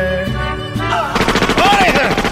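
Rapid, loud gunfire erupts about halfway through as a dense, rhythmic string of sharp bursts, like automatic weapons, after a short stretch of low, sustained tones.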